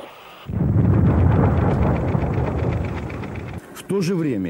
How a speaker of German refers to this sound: An Bord Russlands neueste Bombe, eine Vakuumbombe. Sehen Sie nun die Wirkung, sagt der Reporter. Was folgt, ist eine gewaltige Explosion.